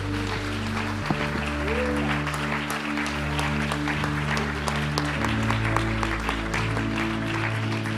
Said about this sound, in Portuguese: Aplauda ao Senhor. Isso.